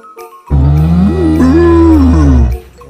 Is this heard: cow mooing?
yes